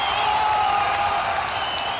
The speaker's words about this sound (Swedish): Jag ska bara leta fram en liten eh, vad heter det, applåd här. Ja, så jag ja, en applåd.